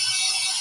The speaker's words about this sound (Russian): это работает дрель моего приятеля Степы